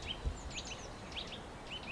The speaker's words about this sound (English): No, that's a nuthatch. That liquidy sound is a nuthatch.